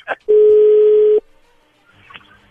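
A single loud, steady telephone ringing tone sounds for about a second as a call goes through, followed by faint background noise and a brief murmur.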